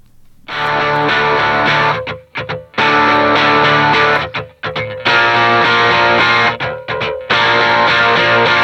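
Loud, heavily distorted electric guitar music with a dense, full-band sound, driving in bursts with brief choppy breaks between sections; no voices.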